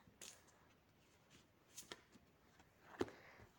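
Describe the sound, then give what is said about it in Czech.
Cards being shuffled as more cards are laid out in a card reading: a quiet run of soft papery flicks and riffles, with a few sharper snaps and a louder slap near the end, and no voices. “Co se týče uh, partnerských vztahů, já ještě hodím další karty.”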